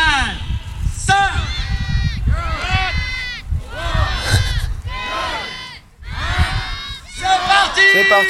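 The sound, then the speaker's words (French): A crowd of about a hundred children in Épinal shouts and cheers all at once, loud, high excited voices overlapping continuously as they set off running with kites flying, with a brief dip before the yelling surges again. “Et voilà, tous les gamins s'élancent, les cerfs-volants s'envolent, certains s'en mêlent, mais ça vole, ça vole, ça galope.”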